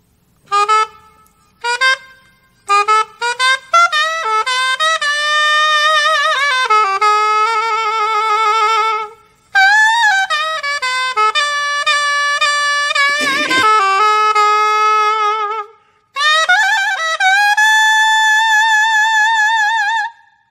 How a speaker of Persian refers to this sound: اولین ساکسفونی که صداش رو میشنویم ساکسوفون سوپرانینو هست که زیرترین صدا رو توی خانواده ساکسوفون ها داره میشنویم صدای ساکسوفون سوپرانینو رو